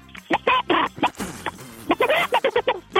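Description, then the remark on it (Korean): A voice impressionist on the Park Myung-soo radio show segment imitates a chicken with a quick series of loud, clucking vocal bursts, some short and choppy, others drawn out, with no other talking. “저 오늘 닭 소리하고. 닭 소리 갑니다. 닭 소리.”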